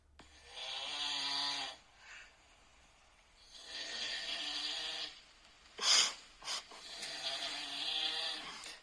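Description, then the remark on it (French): Loud snoring from a sleeping person, with long rasping inhales and exhales in a slow rhythm, plus a couple of short sharp snorts near the end. “Faut que je vous fasse écouter l'enflement.”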